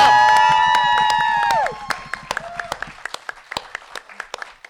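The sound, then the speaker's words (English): A live crowd at a New York Super Week Fan Bro Show with Black Girl Nerds claps and cheers loudly with sustained whoops, then the noise thins to a few scattered, sharp handclaps that gradually fade out. “Fan Bro Show and Black Girl Nerds are in the building. Make some noise for that.”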